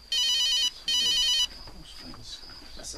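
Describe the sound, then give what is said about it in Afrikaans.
A mobile phone rings twice in quick electronic bursts, loud, then stops, leaving a faint steady high tone and soft background noise. “Wie se foon is dit?”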